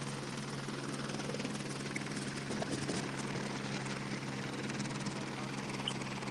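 A helicopter drones steadily as it arrives at a hospital carrying a patient, its rotor thrum and engine hum filling the scene continuously, with faint voices murmuring underneath.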